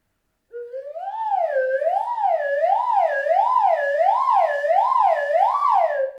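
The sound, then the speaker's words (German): A slide whistle, also called a lotus flute, plays a steady, loud tone that swoops up and down in a regular wavering pattern, about ten rises and falls, imitating the whistling of a water kettle in tea preparation, with no other sounds. “Also dieser Klang wird erzeugt mit einer sogenannten Slide Whistle oder auf Deutsch kann man auch sagen einer Lotusflöte.”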